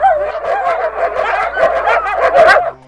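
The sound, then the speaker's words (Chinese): A black dog named Duoduo barks loudly and frantically, a rapid string of about ten sharp, mid-pitched yaps running together over a few seconds, with no one talking. “这个时候，多多突然“汪”的一声大吼大叫”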